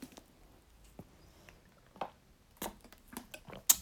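Quiet drinking of water: a few soft gulps and wet mouth sounds spaced out over a few seconds, with small clicks and the faint knock of a cup or bottle, and no talking.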